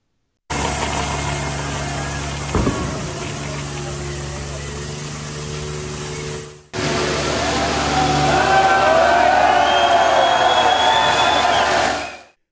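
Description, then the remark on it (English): French farmers protesting with heavy tractors and farm implements, flinging manure onto police cars and buildings. The engines rumble and idle steadily, with a single sharp thud early on, then a louder stretch where whining, rising engine tones and murmuring crowd noise join the drone. “Those are French farmers flinging manure with their farming implements on police cars and buildings.”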